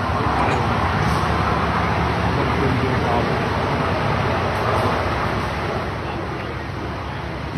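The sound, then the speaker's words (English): A loud, steady roar of a 757 aircraft overrunning the end of the runway, with scraping, rumbling clatter as it strikes objects beyond the runway, with no explosion, easing off slightly near the end. “kind of hear it hitting some stuff beyond the end of the runway there.”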